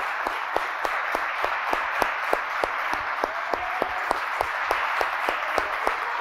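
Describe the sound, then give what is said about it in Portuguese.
An audience applauds in praise of the Lord, a dense wash of many hands clapping, with sharper rhythmic claps standing out at a regular beat throughout. No one speaks over it. “Nós podemos aplaudir ao Senhor?”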